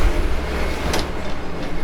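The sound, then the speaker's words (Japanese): A car rumbles past on a street in front of Ginkaku-ji temple, a steady low engine and road drone with a brief sharp clatter partway through, with no voices. “あすいませんちょっと今あの銀閣寺の前の、えー、に出ましてちょっとすごい人と、まあ、ちょっと今車が通ったんで賑やかですけど銀閣寺の前を通っています”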